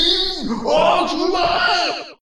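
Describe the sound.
A person voices a monster's anguished scream as a Scorching Ray burns into its body through its wide-open eye: one loud, sustained, strained bellow lasting about two seconds, with wavering, sliding pitch, then cutting off abruptly.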